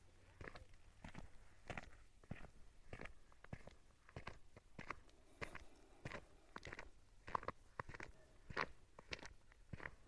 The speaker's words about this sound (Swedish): Jag ska vara tyst några sekunder nu så får du bara lyssna på ljudet av mina steg en stund.